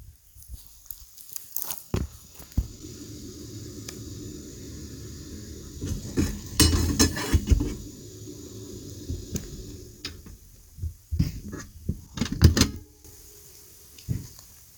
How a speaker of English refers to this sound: Um, here's a uh, stovetop cooking me some water for tea, and rain.